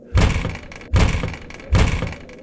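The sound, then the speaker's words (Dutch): Three heavy, booming bangs on a door in a steady, evenly spaced rhythm, each a loud, deep thud with a short ringing decay, and no voices. “Weer bonkt hij op de deur.”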